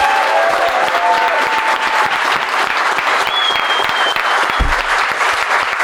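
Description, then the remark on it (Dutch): A crowd claps loudly and steadily for a performer at the close of a show, a dense wash of many hands with no pauses, with a few faint voices and whistles rising over it. “Mag ik een keihard applaus voor het genie uit de Jeep Amali, de legend!”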